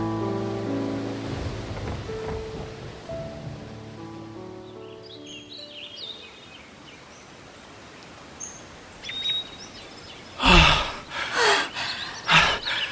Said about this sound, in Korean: 정말 엄청난 폭풍이었죠?